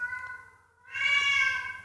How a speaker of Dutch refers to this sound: En hij miauwt zoals een dove spreekt. hij hoort zichzelf niet. Oh de dove kat.